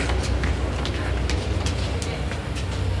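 A steady, heavy rumble fills a metro station as a train rolls through, with repeated metallic clicks and clatters over the low roar and no voices.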